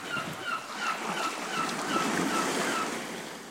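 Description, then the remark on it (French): Ocean waves wash steadily onto the beach at Douglastown in heavy rain, a continuous hissing roar of surf with a faint whoosh of wind running through it and no voices. “le sable et l'embrun des vagues de la plage de son village”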